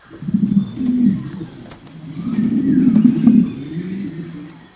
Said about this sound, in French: Les scientifiques ont déterminé que certains dinosaures vocalisaient probablement sans ouvrir la mâchoire, leur cri s'apparentait au roucoulement de pigeons géants, avec une tonalité plus grave.